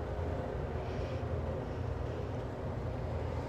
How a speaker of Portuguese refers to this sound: Você sobe as escadas e conseguem já ouvir o som do metrô se aproximando.